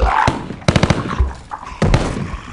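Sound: machine gun fire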